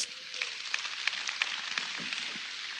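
Steady applause from a crowd for the technical team, a dense crackle of many hands clapping together at an even level for the whole moment, with scattered sharper claps standing out. No one speaks over it.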